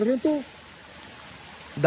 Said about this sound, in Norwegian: Men du tenker flom. Flom er det i rette banene. Eh, fossefall. Fossefall, ja.